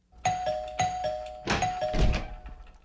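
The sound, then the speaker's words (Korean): The doorbell of apartment unit 2302 on the 23rd floor of a newly occupied apartment building rings with a steady, mid-pitched electronic tone lasting about two seconds, overlapped by four dull thumps, then fades out. No one speaks. “23층으로 올라가서 2302호의 배를 눌렀습니다.”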